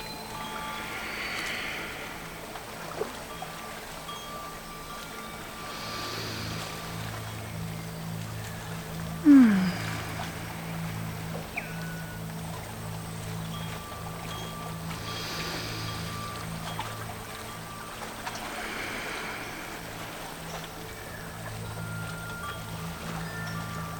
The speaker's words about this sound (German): lönt sich von der sanften Strömung vom Fluss durch Richtung Wald und Richtung Meer treiben